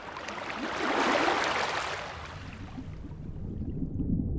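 Ocean waves roll in the sea: a wave swells into a broad rushing wash that peaks and slowly recedes, leaving a low, steady rumble of water and wind. No voices are heard.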